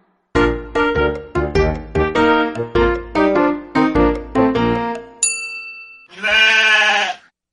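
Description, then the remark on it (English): A bouncy melodic tune of short plucked notes ends in a bright ding, followed by a single loud sheep bleat with no talking. “On the way, she met a sheep. A silly sheep.”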